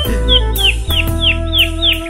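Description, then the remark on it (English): A canary chirps in quick, bright, downward-sweeping notes, repeating about six times in a steady rhythm, clear over a low steady hum. “Well, anyway, I did manage to grab myself the canary while I was in there.”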